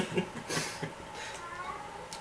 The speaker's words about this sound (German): ähm, ach, Katze.